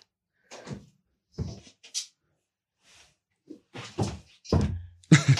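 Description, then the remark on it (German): A secret door creaks and clatters open and shut in a series of sharp knocks and scrapes, ending with a loud, heavy thud, with no one speaking. “Und er kommt wieder durch so. die Geheimtür.”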